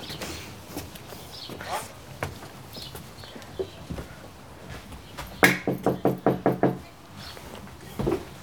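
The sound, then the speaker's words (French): A quick, loud series of about seven knocks on the door of a home on a street bordered by a park, following a stretch of quieter talking and faint background sounds. “Merde, ça sonne déjà C'est qui c'est Qu'est-ce que c'est J'arrive J'arrive Me voilà”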